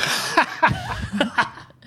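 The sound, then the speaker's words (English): A sneeze: a few sharp, explosive bursts of breath in quick succession, loud against a quiet background, with no talking. “Oh, God, bless you for that too.”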